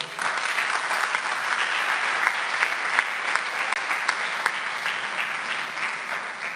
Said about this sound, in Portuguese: Aplauda ao Senhor Jesus, amém?